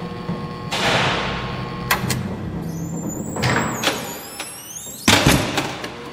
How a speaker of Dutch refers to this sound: En als automatisch schuiven voor ons de grote hekken open en achter ons vallen ze met een donderend geweld weer dicht.